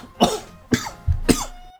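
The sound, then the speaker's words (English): Three harsh, raspy coughs in quick succession from a man with a 102-degree fever, fairly loud, each a sharp burst spaced about half a second apart, with no talking around them. “… even gives you his 102 fever cough with that”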